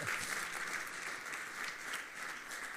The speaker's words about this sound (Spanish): ¿Cuántos se atreven a darle un fuerte aplauso al Rey de Reyes y Señor de Señores?